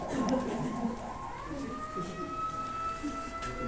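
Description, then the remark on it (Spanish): An ambulance siren passing outside holds a steady, slowly rising tone, moderately faint, with muffled voices and room noise underneath. “para manejar una ambulancia, que es una avanza, ni siquiera es una ambulancia. Ah, sí. Ah, sí, allá va.”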